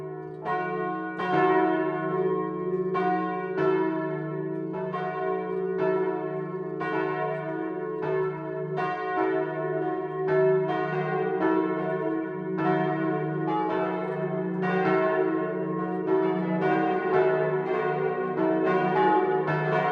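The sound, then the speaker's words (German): The 12 o'clock midday bells of the Catholic parish church St. Michael in Schwebenried, Lower Franconia, peal: several bells of different pitch striking in a steady overlapping rhythm, with a continuous low hum beneath the strokes, loud and without any talking. “Das Mittagsläuten kommt heute von der katholischen Pfarrkirche St. Michael im unterfränkischen Schwebenried.”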